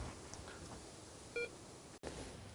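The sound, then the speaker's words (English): A bite alarm on a long fishing rod gives a single short, clear electronic bleep, standing out against a steady hiss of outdoor background noise on a windy day at a fishing swim, with no one talking. “Oh, long rod's just bleed.”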